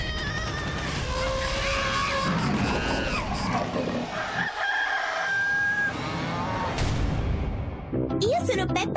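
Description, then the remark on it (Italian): An angry cat yowls loudly in drawn-out, wavering wails that bend up and down in pitch over a dense, busy background, ending with a sharp rising cry. “Non vi conviene far arrabbiare il gatto.”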